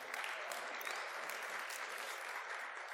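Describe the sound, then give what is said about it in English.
The Grace Assembly audience bursts into sustained applause, a dense, steady wash of many hands clapping at an even loudness for the whole stretch, with no voices standing out. “You need to give yourself a round of applause for that.”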